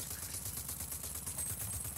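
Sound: video game gunfire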